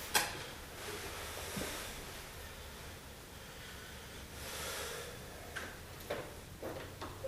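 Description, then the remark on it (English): A metal spring clamp is looped back around the outer part of a washing machine tub's opening with the door removed, spring at the bottom: steady scraping and rustling, then a few sharp metallic clicks and snaps toward the end. No one speaks. “that will just loop it around the outer part of the tub. Make sure the spring is at the bottom like it was.”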